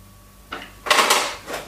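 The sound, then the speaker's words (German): A drawer slides open with a brief rattle at first, then a louder, longer scraping rumble as it is pulled out to fetch a bottle opener, followed by a softer clatter of contents. Clear, no talking. “Wo ist der Öffner? Äh, in der Schublade, da wo das äh, Handtuch hängt.”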